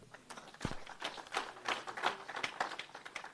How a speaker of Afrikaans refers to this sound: Ons gee maar net klap, boys.